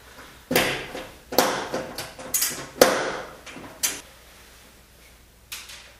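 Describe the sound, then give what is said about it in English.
Clicking and rattling bursts of a socket tool loosening the bottom screws of the four holding a door panel on, coming in several irregular spurts with brief pauses and a final click after a gap. No one speaks. “I'm going to take the bottom ones off first.”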